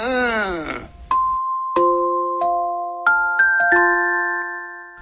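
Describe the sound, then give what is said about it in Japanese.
A brief sliding, voice-like tone gives way to the music box of a cake shop's cuckoo clock chiming nine o'clock, playing a slow melody with clear bell-like notes ringing out one after another and lingering. “前のよケーキ屋の鳩時計だよな9時になると決まってよあれが鳴り出すんだよなんだかよ、ね、うちのそば屋がなオルゴールと一緒に閉店するみたいになっちゃってる”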